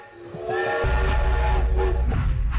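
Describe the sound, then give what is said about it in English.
A loud, sustained train whistle sounds for about two seconds while the heavy rumble of a moving train, leaving York for Hull in England, builds underneath and continues to the end. “Right, back on the train.”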